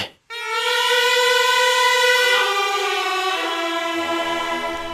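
A Bulgarian gaida bagpipe played by a piper from the village of Momchilovtsi, recorded at the first Rozhen folk singing festival in 1961, sounds a loud, sustained, reedy tone over a steady drone, starting abruptly after a brief silence and shifting pitch slightly partway through, with no voices.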